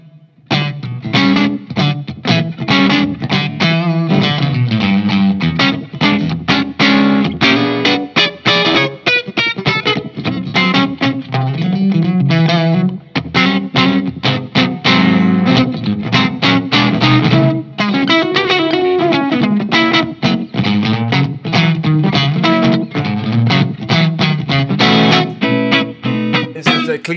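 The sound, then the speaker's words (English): Electric guitar played continuously through a low-gain overdrive, giving a mildly distorted, edge-of-breakup tone like a really old amplifier, playing blues with a mix of chords and single-note lines at a steady, fairly loud level with no talking. “It sounds a little bit like like a really old amplifier, amplifier when it distorts. On the edge of breakup, yeah.”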